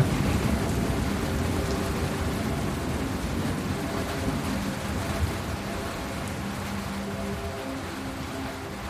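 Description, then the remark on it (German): Steady heavy summer rain pours down at night after a thunderstorm in a dense, hissing wash that thins slightly toward the end, the downpour gradually softening to a few last drops, without any voices. “Auch der starke Regenfall beruhigt sich langsam. Noch ein paar letzte Tropfen fallen vom Himmel.”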